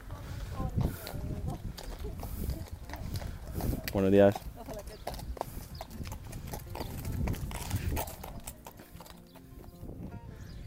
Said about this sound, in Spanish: Mira, ahora justo pasan una pareja de caballos.